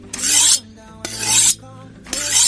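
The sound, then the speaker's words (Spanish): Three long, bright metallic scrapes of a knife being sharpened, each stroke rasping loudly for about half a second with short pauses between, rhythmic, no voices. “Como el cuchillo del jamón. ¿Cuchillos? Bien. Bien, bien, sí, sí, sí, muy a la primera, a la primera, muy bien.”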